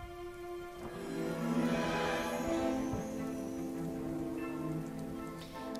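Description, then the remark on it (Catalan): Steady rain patters against the walls of a narrow cobbled street in Diagon Alley, a continuous wash of droplets with faint tonal hums underneath, even in loudness throughout. “La pluja, com abans, cau sobre les parets”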